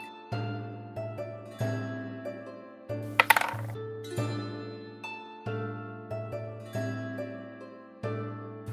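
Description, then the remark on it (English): A short burst of new dice rattling and clinking as they are rolled for a stealth check in a tabletop game, a few quick sharp clicks over about half a second, heard over steady, gently plucked background music with no one speaking. “Uh, can you roll me a stealth check?”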